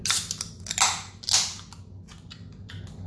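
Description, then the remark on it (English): Sierra Nevada beer containers being opened: three sharp, bright pops with hissy fizz spaced about half a second apart, followed by a lingering faint crackle and low hum, with no talking. “We're gonna do the pop on three.”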